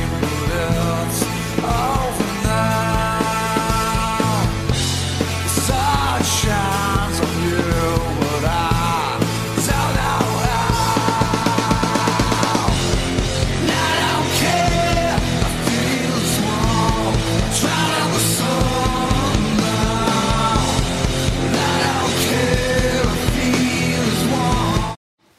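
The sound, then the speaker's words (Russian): A loud AI-generated grunge-style rock song, written and performed entirely by a neural network, including the sung lead vocal, with dense distorted guitars and driving drums, steady and full from start to a sudden stop at the end. “Это нейросеть изучила всю музыку … и написала песню в их стиле и сама все сделала”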